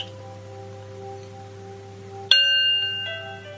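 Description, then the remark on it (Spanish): A meditation gong is struck once to begin a seated meditation, a sharp metallic hit that blooms into a loud, shimmering ring and keeps sustaining, preceded by a steady, quiet tonal hum with no talking. “Recuerda que al comenzar suena el gong y volveremos a tocar el gong al finalizar.”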